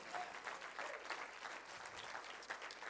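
A crowd claps steadily for a few seconds for a couple of people, the dense patter of many hands at a moderate, sustained level with no voices on top.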